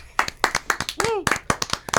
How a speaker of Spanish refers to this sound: Jennifer López, señoras y señores, se vuelve a casar. Un aplauso para Jennifer López.